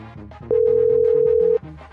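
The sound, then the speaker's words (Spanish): A telephone dial tone sounds while a call is being placed, one loud, steady mid-pitched hum for about a second, then cuts off, over a softer musical background that plays throughout. “Vamos a marcarle otra vez, vamos a marcarle otra, vez. Se la van a ver, ahí te va, vamos a marcar.”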